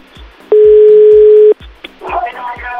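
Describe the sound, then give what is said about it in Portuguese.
A loud, steady telephone ringing tone sounds once for about a second over a soft, regular low thumping, then gives way to muffled, jumbled sound. “Vamos ligar para ele ver, né?”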